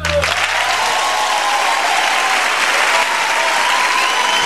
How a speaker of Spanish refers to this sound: quiero un aplauso de verdad, Toco, a mi compañera de este programa